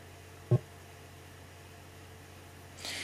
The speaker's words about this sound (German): So, ich höre schon, wie meine CD in meinem, im Laufwerk sich laut dreht.